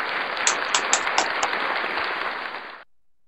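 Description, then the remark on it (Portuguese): A round of applause from a group, given in memory of Zé Vasconcelos: dense steady clapping with a few sharper individual claps standing out, lasting close to three seconds before cutting off abruptly. “Então vamos fazer o seguinte, vamos dar uma salva de palmas em memória aí do Zé Vasconcelos.”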